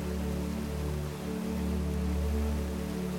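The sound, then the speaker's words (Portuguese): Steady, continuous rushing water of a large waterfall of clear water fills the scene at an even moderate level, with a soft sustained low tonal drone underneath and no voices. “Ouça o barulho que a água faz.”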